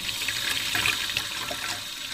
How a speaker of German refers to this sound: Zuerst kommen in einen Messbecher 350 ml warmes Wasser.